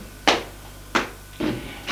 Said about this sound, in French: L'on frappe à la porte. Entrez. C'est la bonne.